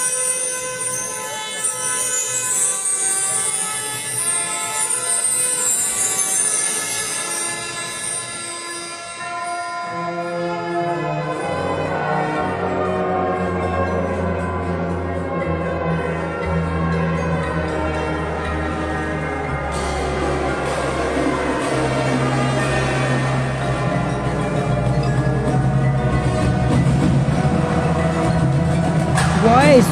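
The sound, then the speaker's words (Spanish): A marching band directed by a drum major plays sustained brass chords with three mellophones carrying the middle voices; deeper brass and drums join partway through, and the ensemble swells fuller and louder toward the end. “Me encanta cómo dirige el drumager La neta, dirige muy bonito, ¿eh? Melófonos. Tres melófonos ahí.”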